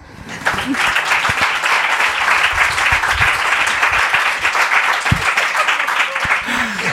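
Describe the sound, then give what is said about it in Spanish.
A crowd breaks into loud, steady applause lasting several seconds, a dense wash of many hands clapping, with a few faint voices and shouts mixed in. “Un aplauso, ¿no?”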